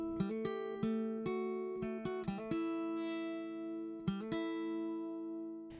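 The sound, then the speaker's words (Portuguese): A short instrumental intro jingle: bright, bell-like struck notes ring out over sustained harmonic tones, with quick clusters of notes and a final flourish, no voices. “Então, ouve a vinheta aí e vem comigo.”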